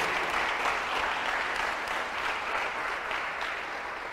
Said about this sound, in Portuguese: Dá um aplauso a ele aí, pelo amor de Jesus.